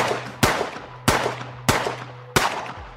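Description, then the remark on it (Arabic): Four sharp pistol shots ring out at an even, deliberate pace as a robber fires at a man, each a loud crack trailing off into a brief echoing decay, with a steady low hum underneath and no voices. “أثارت حركته انتباه اللصوص رفع احدهم مسدسه دون تردد اطلق النار”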